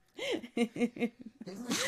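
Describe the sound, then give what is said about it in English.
A sneeze: a few quick, voiced catching breaths build up, then a sharp, breathy burst bursts out at the end. “God bless you. Bless you.”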